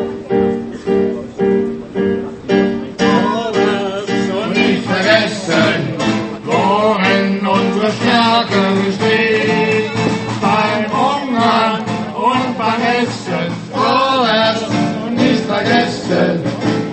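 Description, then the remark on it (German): The Beta-Chor, a choir, sings together in full harmony, sustained and loud throughout, with wavering melodic lines rising and falling over a steady, dense chordal backdrop. “Hören wir nochmal den Beta-Chor.”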